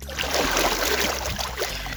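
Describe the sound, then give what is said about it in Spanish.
Water sloshing and splashing steadily for a couple of seconds, fairly loud, with a churning, bubbling texture as it is splashed by hand. No voices. “Quiero hacer un poco de ruido con el agua para hacer más ruido con el agua.”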